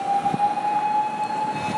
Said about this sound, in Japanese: 今救急車とか消防車もね追いついてないような状態であちこちからサイレンが聞こえてます